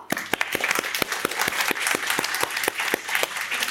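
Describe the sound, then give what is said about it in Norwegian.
A crowd of 13- to 14-year-olds from Slåtthaug ungdomsskole applauding steadily, many hands clapping together with sharp individual claps standing out, loud throughout. “Applaus til dere selv.”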